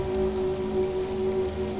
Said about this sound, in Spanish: En medio del caos, del ruido de la tormenta, del quejido de las aguas